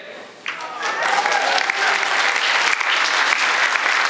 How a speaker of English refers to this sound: Clap for her. She put up with me for 12, 14.